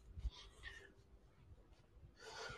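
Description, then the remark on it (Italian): Heavy, breathy panting while climbing a fairly steep hill in Bologna: a couple of long, airy exhales separated by a brief pause, fairly quiet, over a low rumbling background. “Allora adesso scusate se ansimo, ma sto salendo su una collinetta abbastanza ripida che solo chi è di Bologna può conoscere, infatti sto salendo,”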